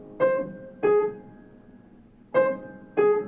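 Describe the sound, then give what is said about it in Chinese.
A clarinet imitates a cuckoo with two pairs of soft two-note calls, each note a clear, mellow tone with a gentle attack. Quiet sustained piano chords play underneath at an andante, walking pace, depicting a quiet forest. This is from a short piece titled 'Cuckoo'. “那是模仿杜鹃鸟的叫声吗？”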